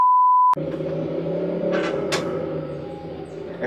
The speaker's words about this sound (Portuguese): Daí ele faz isso pra que quando ele fica acelerando a moto, pra que o. bravo o Ricardão saber a de vazar.